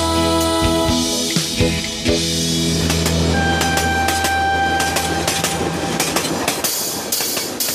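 A train rolls along the rails with a steady, loud rumble and irregular clickety-clack wheel clicks, while a thin high whine briefly rises over it midway through.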